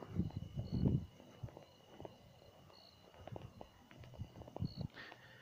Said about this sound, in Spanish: cosa que se convierte bastante relajante combinándolo con los sonidos de la naturaleza como esos grillos y esas ranas que si oyen que si nos quedamos en silencio unos instantes se puede capturar